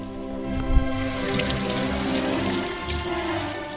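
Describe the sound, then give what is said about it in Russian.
Hot water runs steadily from a tap into a filling bathtub, a continuous rushing and splashing with a brief knock near the start and no voices. “И пока я раздевался, они моментально напустили горячей воды и велели мне туда сесть.”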